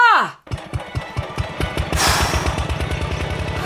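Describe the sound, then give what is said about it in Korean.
A two-wheeled power tiller engine, the narrator's father's, chugs loudly and steadily in a rapid, even putter of low thumps, heard from far away in the countryside, after a brief vocal sound at the very start. “저 멀리 익숙한 소리가 들려왔습니다. 그것은 바로 아버지의 경운기였어요.”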